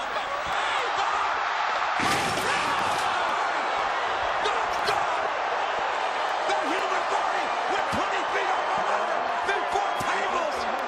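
A roaring wrestling arena crowd fills the background while a heavy slam lands early on, followed by fainter thuds and impacts of steel chair hits as the steady crowd noise carries on throughout.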